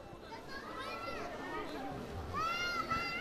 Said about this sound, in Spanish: Es escuchar el rumor de cientos de niños que esperan formales con sus madres y abuelas.